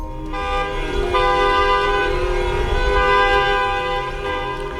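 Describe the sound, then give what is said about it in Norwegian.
A loud, unbroken chorus of many car horns blares together across Beijing, China, as drivers honk to honor those who died of coronavirus on a national day of mourning; the overlapping tones hold steady for the whole stretch with no voices. “Bilførere i Kina tuter for å hedre de som er døde pga. korona.”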